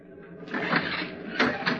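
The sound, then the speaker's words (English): The door of a ship captain's cabin swings open with a scraping, mechanical rasp that starts suddenly, holds steady, then ends with two sharper surges of noise. No one speaks. “I opened the door.”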